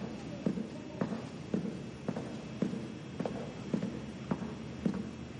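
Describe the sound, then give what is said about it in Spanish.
Footsteps walk steadily down a narrow, empty corridor with doors on both sides after leaving an elevator: about ten even, moderately loud footfalls at a regular walking pace, each a short thud standing out over a low, constant background hum. “Sale del ascensor, mira alrededor y echa a andar por un estrecho y vacío pasillo con puertas a ambos lados.”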